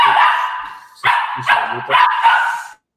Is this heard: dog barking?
yes